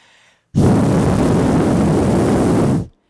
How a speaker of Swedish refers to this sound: nu ska ni höra hur det har låtit hela kvällen, hur det ska fortsätta låta när vi gör de här alkotesten. Är ni beredda?